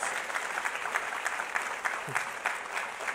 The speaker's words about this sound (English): Moms, you guys are amazing, strongest people in the universe. Let's give a big round of applause to all moms.